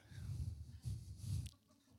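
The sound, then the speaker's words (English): A person makes a low, gravelly frog-like croaking noise with their voice, imitating a noise kids make at school: three rough rattling bursts in quick succession, fairly loud, then it stops abruptly. “you guys heard this thing the kids do at school? Brah. Sounds like a, a, a frog.”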